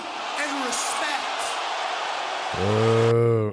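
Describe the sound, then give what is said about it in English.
A large arena crowd at a wrestling show roars and cheers in a dense, steady wash of noise, with a loud sustained shout-like tone rising over it near the end. “The crowd loved it. You heard the crowd on there. They loved it.”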